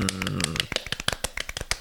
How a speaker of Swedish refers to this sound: Och då tycker jag vi kör en liten mini-applåd för en fem av fem i podcasten.